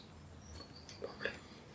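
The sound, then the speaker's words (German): Faint birds chirp in the background, a few short high-pitched calls scattered over a quiet, slightly hissy background with a low murmur. “oh, die Vögel zwitschern auch so ein bisschen im Hintergrund”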